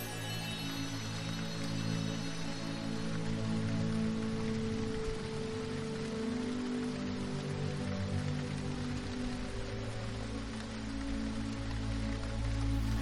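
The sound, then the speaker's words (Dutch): Steady rain pours down outside in a dense, even hiss that holds at the same level throughout, with a low tonal hum running underneath and no voices. “Soms regent het buiten en schijnt de zon binnen.”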